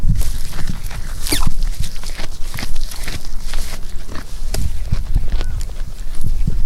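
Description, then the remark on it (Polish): Camelids chewing and crunching their special camelid feed: a steady stream of wet munching and crisp crackles, with occasional thuds and shuffling of hooves, moderately loud and continuous, with no talking. “No i oczywiście specjalną karmę, tak, dla wielbłądowatych. Słuchajcie, jak pałaszują.”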